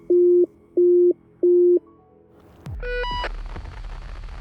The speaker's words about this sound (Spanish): Una alarma saltó en la escafandra de Beri